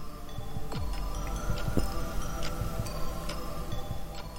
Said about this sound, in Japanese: そしたら、またルーレットが回り始めた。